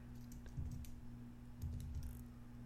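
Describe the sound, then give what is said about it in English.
Quiet keystrokes on a computer keyboard as someone types a player's name, two short bursts of rapid clicking separated by a brief pause, over a low, steady electrical hum. No one speaks. “How you spell this boy name? De'Aaron Fox. I'm probably spelling it wrong.”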